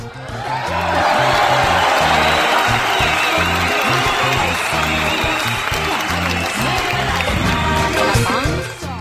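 A crowd bursts into loud, sustained applause with cheers and whoops for a girl who played the ukulele, the dense clapping holding steady for about nine seconds over a rhythmic low thumping beat.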